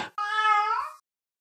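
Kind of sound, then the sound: animal, cat meowing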